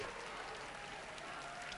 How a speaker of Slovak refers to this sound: Môžeme počuť veľmi bezprostredný, spontánny potlesk